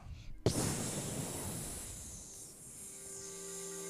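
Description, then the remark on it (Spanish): A person imitates a viper's hiss with one long, steady breathy hiss that starts abruptly and holds for several seconds, fairly loud, with a faint hum entering near the end. “Eh, a ver, el sonido de la víbora.”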